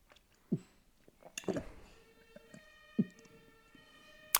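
A steady, tonal emergency vehicle siren (Martinshorn) sound effect rises out of the background halfway through and holds to the end. Several short thumps and bursts of activity occur earlier and alongside it.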